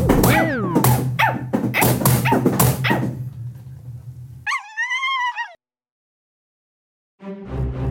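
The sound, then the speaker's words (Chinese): A dog that suddenly runs in and knocks people flying barks rapidly and excitedly over a low steady hum, then lets out a high, wavering whine before a brief silence and a final burst of sound. “哎，你狗狗突然跑进来把我们撞飞，很痛哎。”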